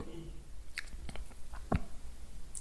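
A single throaty swallow with a soft gulp midway, made by a patient asked to swallow during a thyroid examination, surrounded by faint wet mouth clicks.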